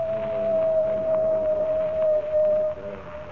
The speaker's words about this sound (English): That is the second time. When the coyote howls three times, I die.